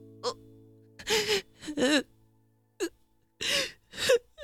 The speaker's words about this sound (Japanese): ああそんなにこすっちゃダメだよ泣くななんて言わないから今は思いっきり泣いてね